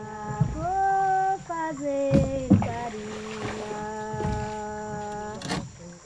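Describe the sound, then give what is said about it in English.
A boat's motor hums steadily with a droning, whining tone whose pitch shifts up and down, along with some low thumps and splashing as it travels along a forest river in Acre, Brazil, about 10 hours from Mancio Lima. “About 10 hours traveling by boat from Mancio Lima, the last town that can be reached over land”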